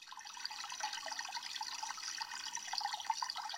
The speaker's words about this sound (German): Am Eingang plätschert ein kleiner Brunnen, im Wasserbecken schwimmen drei Karpfen.